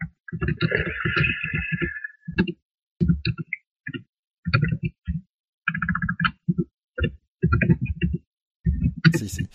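Loud computer keyboard typing, the keyboard extremely near the microphone, in irregular bursts of rapid clicks and clacks separated by short pauses, with a sharper flurry of keystrokes at the very end.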